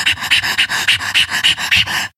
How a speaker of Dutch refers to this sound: Ja, ja, de honden ja, slaan erop aan.